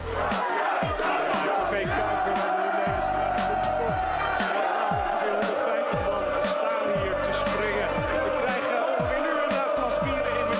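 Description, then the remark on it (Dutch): A dense crowd of Ajax football supporters celebrating in Amsterdam city centre roars and chants continuously, with shouts and whoops rising over the din and sharp bangs or claps cutting through; loud throughout. “Gejuich en gefeest ongetwijfeld ook bij jou”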